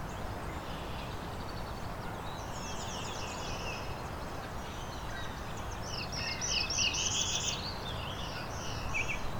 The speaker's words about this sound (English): There we go, black throated blue.